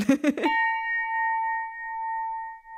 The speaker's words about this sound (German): Einen Wow-Effekt löst die Glocke also nicht aus. Sprich, auch wenn die Messwerte im Labor zeigen, dass man die gewünschten Frequenzen ganz gut erwischt hat, im Hörtest kann die sogenannte Jazzglocke nicht so recht überzeugen.